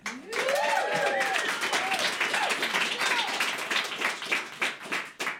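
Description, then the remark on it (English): A live audience in the Blue Moon Listener Lounge at Idaho's 94.9 The River bursts into steady, dense applause to welcome a band. The applause carries on for several seconds, with a few whoops and cheers rising above the clapping near the start. “I've got a great crowd here, and I would ask them to join me in welcoming”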